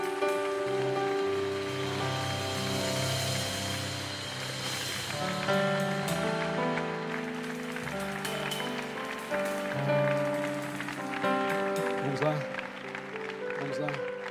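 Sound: audience applauding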